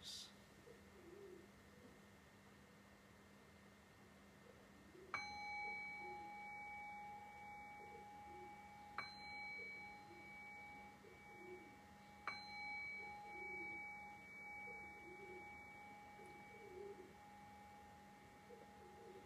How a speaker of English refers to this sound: And in a few breaths, we'll begin to pivot back into our conversational space and I'll cue that by ringing the bell three times.